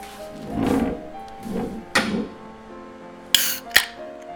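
Beer glasses clink together in a toast at a meal: two bright, sharp taps close together with a short high ring, following some soft, muffled clatter and movement. No one speaks.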